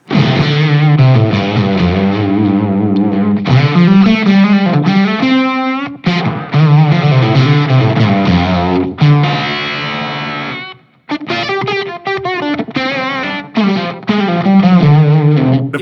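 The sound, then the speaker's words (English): An overdriven electric guitar, played through a Jan Ray pedal with its three-way switch on the fat and full setting, has a thick, full, dark tone and plays chords and melodic phrases continuously at a loud level, with no voices heard. “This is the fat and full.”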